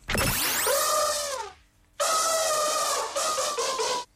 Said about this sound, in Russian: Знакомо? Знакомо животное данное вам? Слоник, наверное. Да, слоник вам сейчас споет какую-то э, мелодичную композицию.